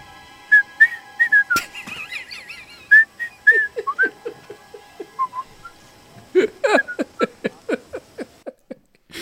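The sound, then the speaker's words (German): A man whistles a bright, bouncy little tune of short sliding notes as he walks away, followed by a quick run of rhythmic, croaky pulses. No one speaks, and the sound is clear. “und pfeifend machte er sich davon.”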